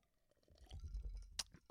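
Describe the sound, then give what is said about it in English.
Someone takes a quiet sip of a drink: soft, wet mouth and swallowing noises build up, then a brief sharp click near the end. No one speaks. “Okay, let's take a little sip here”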